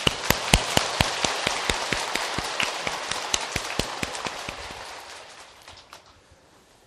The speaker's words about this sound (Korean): 박수로서 환영해 주십시오.